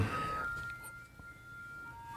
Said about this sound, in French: C'est quoi ce bruit Tu entends la musique Ah, est-ce que c'est le... Ouais. Ah, c'est l'ice cream truck Et voilà Oh, chers auditeurs, auditrices, vous entendez l'ice cream truck